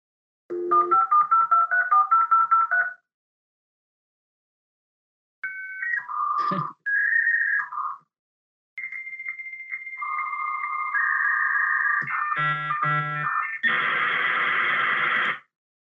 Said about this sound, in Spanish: ese era el sonido que hacía el modem para conectarte